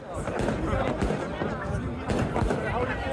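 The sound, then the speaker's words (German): Sharp firecracker bangs go off several times in quick, irregular bursts over a loud, busy crowd din with shouting voices, as hundreds of farmers blockade a ferry terminal at Schlütziel on the North Sea in the evening and police use pepper spray. “Feuerwerkskörper explodieren, die Polizei setzt Pfefferspray ein.”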